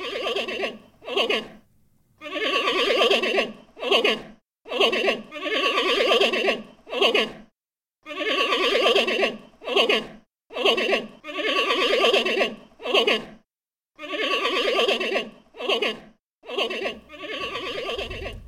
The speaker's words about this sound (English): Uh, and hear the sound of the giant panda.